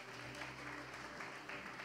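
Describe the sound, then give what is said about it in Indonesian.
An audience applauds for the Lord Jesus together, a steady, dense wash of clapping that holds at an even level throughout, with no voices standing out above it. “Tepuk tangan buat Tuhan Yesus, saudara.”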